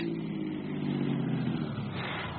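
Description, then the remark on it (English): A car engine hums steadily, a low droning rumble that eases slightly as the car slows and pulls over to the curb, with no voices present. “I pulled the car over to the curb, stared at the boy.”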